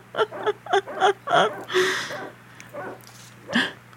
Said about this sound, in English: they're just making out, and that's your that's your sound. Oh, I thought maybe the dog is barking because the bad guy's coming. That's maybe true, but they never explain that. No, in, in but there's straight up a dog just barking